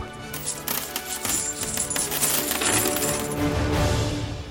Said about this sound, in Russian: С досады поднял я за один конец сундук, и все содержимое посыпалось оттуда разом со страшным шумом. Настоящий серебряный потоп.